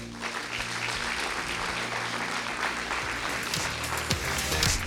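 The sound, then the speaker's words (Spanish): An audience applauds steadily for several seconds, a dense, continuous wash of clapping hands with a low musical hum sustained underneath and occasional brief cheers rising through it. “Dele un aplauso al Rey.”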